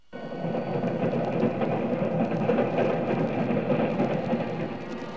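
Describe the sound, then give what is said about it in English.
A train rumbles steadily along the tracks, a loud, continuous low roar with faint rhythmic clacks of the wheels running underneath, with no voices at all. “The sound was a dull, monotonous roar in my ears, and I, I listened wondering if it were real or part of a dream.”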